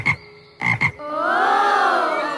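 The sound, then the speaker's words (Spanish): Three short, rough toad croaks in quick succession, then one long drawn-out croak that rises and falls in pitch, loud with nothing else around it. “Pero el sapo Seferino le replicó sabiamente diciendo”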